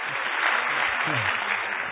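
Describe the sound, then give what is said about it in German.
A crowd applauds steadily, dense overlapping claps forming an even wash of noise for the full two seconds, with a brief voice faintly audible underneath midway. “Applaus für Sie.”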